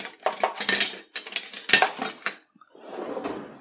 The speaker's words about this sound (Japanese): このアク取りですね。え、これで取ります。